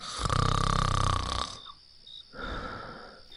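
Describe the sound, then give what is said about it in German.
A loud, rasping snore in a forest fills the first second and a half, then a quieter, higher wheezy breath follows, with a faint whistling tone lingering over the gap. “Der schnarchelt so laut.”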